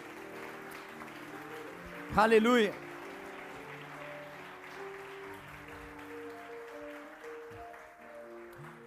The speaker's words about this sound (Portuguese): Pode aplaudir o Senhor, aleluia.